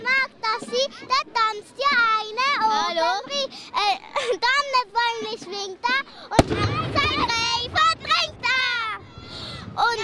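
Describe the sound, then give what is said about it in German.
Excited children chatter and call out continuously while a single sharp black-powder salute shot cracks out partway through, a sudden loud bang cutting across their voices. The scene is opposite the Münster, where children wait for the dancing Wild Man to begin. The salute shots can be heard from afar. “Die Böllerschüsse sind schon von weitem zu hören.”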